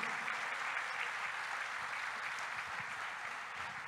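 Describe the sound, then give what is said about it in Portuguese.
An audience applauds Jesus steadily, a dense wash of many hands clapping together that stays full and even throughout, with no one speaking over it. “Você pode dar um aplauso a Jesus, porque ele te incluiu nele.”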